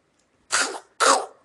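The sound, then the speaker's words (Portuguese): A voice imitates the gurgling cough of Gollum from The Lord of the Rings: two harsh, raspy bursts in quick succession, fairly loud, with a brief pause between them and no talking. “Ele, ele tosse, né? Tipo, flagão.”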